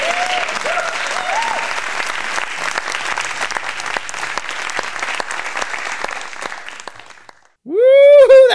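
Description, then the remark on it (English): A game-show style correct-answer effect: a crowd applauding loudly for several seconds, fading briefly, then a bright, loud ringing tone swells in at the end. “oh, give me the correct answer sound effect.”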